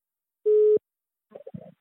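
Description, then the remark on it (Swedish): A single loud, steady telephone ringing tone sounds for about a third of a second, followed after a short pause by faint, muffled voice-like sounds. “Förlåt att jag ringer och stör dig på jobbet.”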